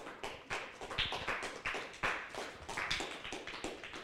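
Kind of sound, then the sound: crowd, studio audience applause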